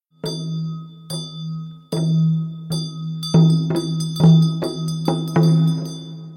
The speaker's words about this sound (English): That's the beginning of a particular Buddhist mantra Specifically, you can hear a bell known as a drilbu and a double-sided drum called a damaru. The chant in this recording is performed by a Nepalese Buddhist nun